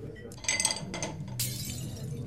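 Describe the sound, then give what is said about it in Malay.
A glass of water is accidentally knocked over as drinks are served, with a few bright clinks and clatters, followed by a hissing, splashing wash of water spilling onto a person's shirt. No voices are heard. “Saya tak sengaja tertumpahkan air.”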